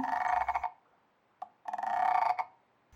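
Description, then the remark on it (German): Two loud, rattling frog croaks, each a rapid burst of pulses lasting under a second, separated by a short pause with a faint click between them. “Nein, das ist nicht die Mama. Das ist der Frosch.”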